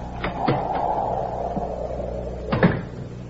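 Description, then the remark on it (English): A side door leading out across a porch is opened and shut: a few sharp latch clicks and knocks over a low rustling, then a final firm thud as it closes. No one speaks. “Oh, you can go out that side door across the porch.”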